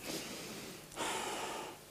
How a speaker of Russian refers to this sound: Фактически со-хам принцип – это вдох и выдох. Они даже чем-то похожи. Когда мы дышим